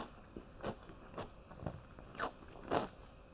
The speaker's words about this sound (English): Pickle. I'm gonna munch on a pickle. Nice sound.